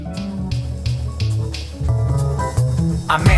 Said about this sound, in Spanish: Estás escuchando el hip hop de la provincia de Ciudad Real.